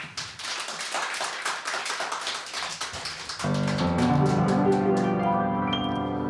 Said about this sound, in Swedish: En applåd!